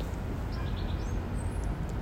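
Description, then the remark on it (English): Goldfinch song, a few brief bubbling twittery notes drifting over a steady rumble of wind-like outdoor noise, with no voices present. “So that bubbling song over there is the goldfinch.”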